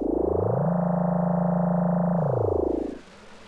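A door opens with a loud, steady electronic hum that swells up in pitch, holds for about two seconds, then slides back down and cuts off. No one speaks.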